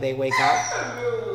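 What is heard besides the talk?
dog barking wildly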